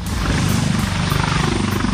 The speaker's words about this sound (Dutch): Het is duidelijk dat we op een airportplatform aankomen. Ja, dat wordt wat eh, meer lawaai.